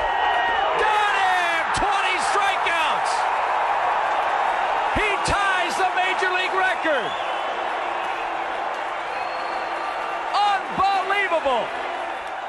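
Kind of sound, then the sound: crowd, stadium crowd erupting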